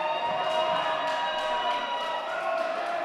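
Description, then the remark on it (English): A large crowd on their feet at a PWX wrestling event cheers and roars continuously, a dense, steady wall of voices at a fairly loud level with no breaks for the whole stretch. “Oh, the crowd is on their feet.”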